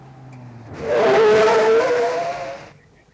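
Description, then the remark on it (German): A car brakes hard and pulls to a stop at a spot on the shore of Lake Michigan, tires squealing loudly for about two seconds before the noise cuts off into near silence. No one speaks. “Zur gleichen Zeit stoppte Dickie Dick Dickens an einem idyllischen Fleckchen beim Ufer des Michigansees das Auto”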